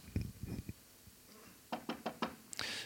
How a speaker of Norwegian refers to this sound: Hva ville du gjort hvis du fikk besøk en kveld? Det banket på døren din.